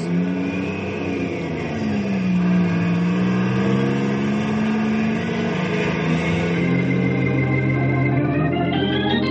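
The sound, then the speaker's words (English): A loud truck engine revs and climbs in pitch through its gears as the truck pulls away, heading down to a warehouse, with a steady mechanical roar throughout and no voices. “I'm going to ride in the truck down to the warehouse.”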